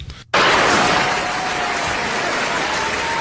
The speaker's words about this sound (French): Une bonne main d'applaudissements.